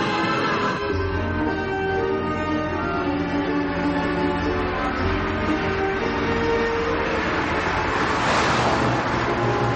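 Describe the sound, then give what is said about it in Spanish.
A car drives steadily along an avenue beside the beach, its engine droning with a constant low hum and tonal whine, while a broader wash of road and traffic noise swells near the end. “Después, Charlie y Oliveira van en el coche por una avenida junto a la playa.”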